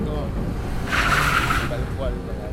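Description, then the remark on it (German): An old, broken used car is dragged into position with ropes and hooks by workers unloading cars from a ship. Its tires give a short, harsh screeching scrape lasting under a second, set against a steady low rumble with faint voices in the background. “die haben eben ihre Seile und ihre Haken dann dort benutzt, um die in die richtige Position zu ziehen”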